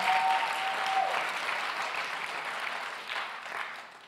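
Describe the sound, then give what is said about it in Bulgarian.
An audience breaks into steady applause, a dense wash of many hands clapping that holds strong for a few seconds before gradually thinning out, with no one speaking. “О, ако искаш да ръкопляскаш, ръкопляскай наистина.”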